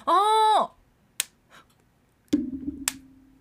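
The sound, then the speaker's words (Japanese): An Apple Pencil (2nd generation) stylus snaps magnetically onto the side of an iPad Pro tablet, where it charges: a few crisp clicks spaced apart, following a short voiced hum at the start, with a low background drone afterward. “こんなパチッとつくわけですでパチッとつくと何が起きるかっていうと、うん、充電ができるんですよ同時にこれな何の充電ができてるんですかアップルペンシルのえー、ペンの充電をそうくっつければできるんだ iPad の側面にくっつければできる便利”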